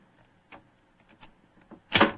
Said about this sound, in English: Is the, is the door locked? Yes, but I think the skeleton key'll do the trick.